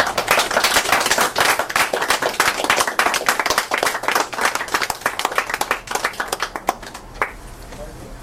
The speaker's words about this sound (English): Let's give him another hand.